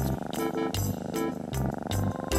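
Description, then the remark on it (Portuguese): A steady cat purr rolls along in a slow rhythm, with three rumbling cycles swelling and easing over a couple of seconds, and no one talking. “Nhau! Era o gato das botas, evidentemente.”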